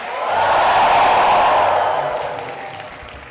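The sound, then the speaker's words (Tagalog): An audience gathered together in prayer shouts in a loud, blended roar that swells quickly, holds for about two seconds, then gradually fades away. “Sama-samang sumisigaw.”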